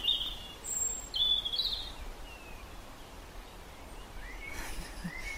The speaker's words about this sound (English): There's always birds having a go at each other here, brawling in the village square, chasing each other, right on cue there, chasing each other up and down, courting, carrying worms back in their beaks, insects, like shopping.